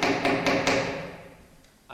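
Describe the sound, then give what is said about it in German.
Several sharp hammer strikes land in quick succession with a ringing, resonant decay, followed by a pause and two lighter taps near the end. Fairly loud, with no voices. “Oh, immer dieses Hämmer. Ja, ja, ist der Hämmer. Ich bin inzwischen eisern am Hämmern und am Lästern”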